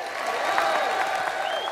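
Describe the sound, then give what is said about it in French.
A crowd at a political rally at the Place de la République applauds and cheers a speaker, a dense, steady wash of clapping with sustained high cheering and whistle-like tones riding over it, holding at an even loudness throughout. “Je crois qu'il a été acclamé d'ailleurs par la foule, euh, la preuve qu'il a su donner une autre orientation à son discours euh, international.”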